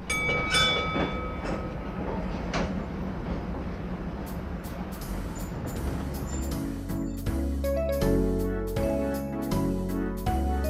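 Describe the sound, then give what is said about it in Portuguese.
A tram rolls along its rails with a loud, steady rumble, and sharp clattering clacks grow more frequent and rhythmic toward the end. No one speaks. “Então vá, Martim, vamos apanhar o elétrico?”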